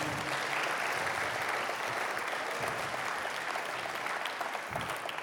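Steady audience applause, a dense wash of many hands clapping at an even, sustained level for the full stretch, with no voices standing out above it.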